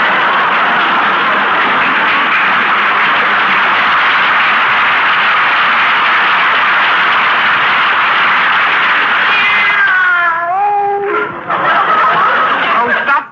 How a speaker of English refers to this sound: drinking those pine needles, Minerva. Come over here. That's a good kitty.